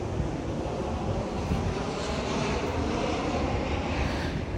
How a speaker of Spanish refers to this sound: Oh, wow, pasando un avión por arriba de mí.